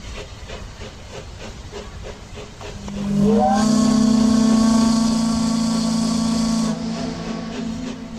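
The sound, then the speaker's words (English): A steamboat whistle blows one long, loud, steady blast lasting about three seconds, rising in over a hissing, chugging background of steam machinery that continues before and after. “That sound can mean only one thing. That's right. Time for another voyage exploring the past, present, and future of the old Oregon country.”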